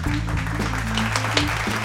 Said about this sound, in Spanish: Aplausos, producción.